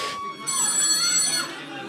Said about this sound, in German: Also sie hat so einen Teil eingefügt, wo das Telefon klingelt, vermeintlich.